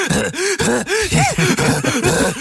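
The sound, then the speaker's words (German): A voice imitates a film actor's heavy, rapid panting as he runs or escapes, with a steady run of voiced, groaning breaths, roughly three per second, loud, with no other talk. “weil er irgendwo langläuft oder sich irgendwo rausrettet und er ist nur am Hecheln.”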